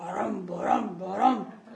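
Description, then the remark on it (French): A human voice imitates an elephant trumpeting, with two loud, drawn-out rising blasts, each swelling and falling over about two seconds. “Allons bon, qui fait ce bruit Qui donc barille dans la nuit”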